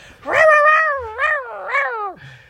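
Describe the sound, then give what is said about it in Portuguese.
A person imitates the scream of a jaguar heard at a zoo: one long, loud, wailing cry with a strained harmonic tone that rises and falls in three swells over about two seconds, then cuts off abruptly. “Depois acho que devia estar tipo um jaguar cocio ou um desses an animais cocio, que era tipo, tu não ouvias, mas só ouvia, tipo, ouvias ah. aqueles berros, estás tipo no meio da sala.”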